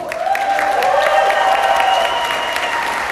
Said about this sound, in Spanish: y para quien pido un fuerte aplauso, por favor.